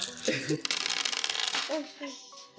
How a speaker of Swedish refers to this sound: Ska jag skaka min lilla tärningshög så att man hör?